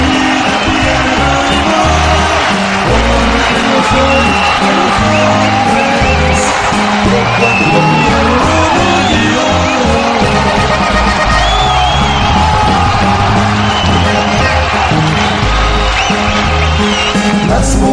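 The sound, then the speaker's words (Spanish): A large concert crowd cheers and applauds continuously at an accordionist's farewell concert, with whoops and shouts rising out of a dense, steady roar that stays loud throughout. “Ese aplauso que se oiga de nuevo, vamos.”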